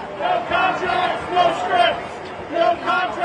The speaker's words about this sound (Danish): Jamen, de foregår ved, at forfattere samles hver dag faktisk, flere hundrede, og så går de i sådan en cirkel foran øh, den bygning, hvor Motion Picture Association holder til, og så råber det, vi want fair rights.